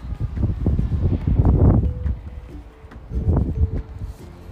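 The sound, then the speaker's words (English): Wind blowing outdoors, a low, rumbling rush that swells into two stronger gusts before easing off again, with no one speaking. “Now there's a little bit of wind up.”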